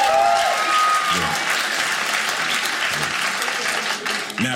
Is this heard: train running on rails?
no